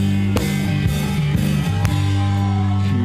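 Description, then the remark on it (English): A rock band plays loudly and steadily in a performance on the show Rock School, with a thick sustained bass-heavy guitar sound and a few sharp drum or cymbal crashes cutting through. No one is singing. “I'm going to play the audio for you”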